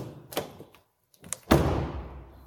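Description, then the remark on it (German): A bunch of caretaker's keys rattles, with a couple of short metallic clicks, a brief pause, then a louder jangle that rings and fades out. No one speaks. “Oh, der, der Schlüssel. Ja, oh, ja, genau, mein Hausmeisterschlüssel.”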